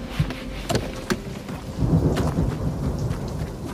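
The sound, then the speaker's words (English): Steady light rain patters across the whole recording under dark skies, with a few sharper drips standing out and a low rumble swelling partway through. No voices are heard. “It wasn't raining hard, but the skies were dark and the forecast had said the heavy stuff was on its way.”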